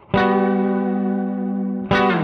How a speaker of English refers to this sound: KMA Worm 2, an absolute blast for anyone looking for that thick, fat, versatile, classic distortion tone with added bells and whistles and a neat footprint for modern pedal boards.